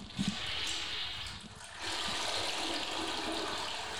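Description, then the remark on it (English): A toilet flushes with a soft, steady rush of water that dips briefly, then surges back and keeps pouring for several seconds. It is fairly quiet and heard alone, with no voices. “Flush the toilet for us.”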